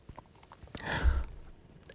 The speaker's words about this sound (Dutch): Neem even een slok koffie.